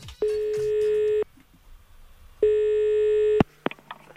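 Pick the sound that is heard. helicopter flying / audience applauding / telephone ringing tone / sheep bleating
telephone ringing tone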